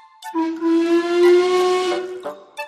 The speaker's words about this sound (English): Today's story is about the time Thomas went to London to see the Queen and how on his journey Thomas met an engine called Duchess, a very special cream coloured tender engine with a whistle that sounds like this.